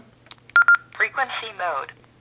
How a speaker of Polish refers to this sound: Usłyszeliśmy dwukrotny sygnał i frequency mode, czyli informację, że urządzenie jest e, w trybie takim standardowym, nie w trybie pamięci.